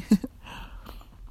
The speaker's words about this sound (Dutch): Ik neem even een slokje thee.